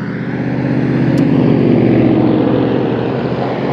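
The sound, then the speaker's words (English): Loud, steady traffic noise: a continuous engine rumble with a throbbing low drone that holds level throughout, with no voices. “And you can hear the traffic, so I'll be wrapping it up here in about a minute.”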